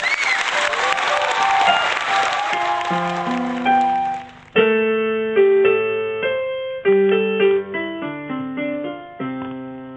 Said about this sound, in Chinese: 来，让我们掌声欢迎他。